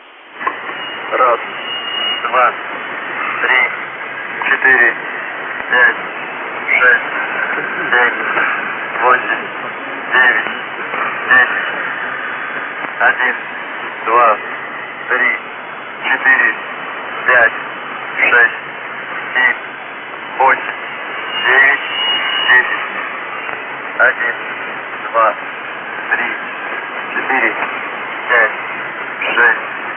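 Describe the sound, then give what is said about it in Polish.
A shortwave numbers station transmission: a narrow, hissy radio band with steady static and a voice breaking through in short, evenly spaced bursts, reading strings of numbers in Russian, for the whole stretch. “Stacje numeryczne”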